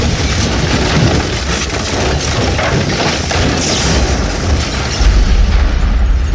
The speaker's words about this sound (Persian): یا حضرت عباس این صدای چی بود؟ گفتی میخوای بتره کنیم هم ترکوندیم برات